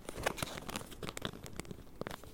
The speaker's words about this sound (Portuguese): E olha, vou fazer aqui um bocadinho de barulho só para tirar a capa da mola.